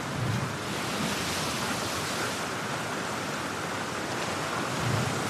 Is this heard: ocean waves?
yes